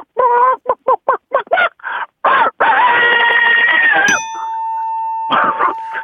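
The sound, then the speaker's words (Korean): A hen cackles while laying an egg, in a rapid series of short, clucking bursts that build into a long, drawn-out squawk, followed by a steady electronic tone and a few more clucks, loud. “예, 닭이 예, 뭐 닭이 이제 출산이 출알이죠.”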